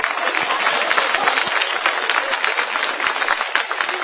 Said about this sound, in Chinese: 哎，蒜苗。来，咱给蒜苗鼓掌。